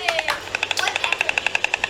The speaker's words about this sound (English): Woodpecker. Woodpecker. Good job. It is a woodpecker.